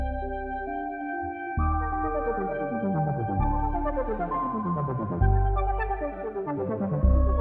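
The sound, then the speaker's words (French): A demo track of the Tech 5 synthesizer plays on its own: sustained harmonic pads and bass notes shifting in chord changes, with arpeggiated glides, steady and moderately loud, no voices. “on a le Tech 5 sur SoundCloud. Écoutons quelques sons.”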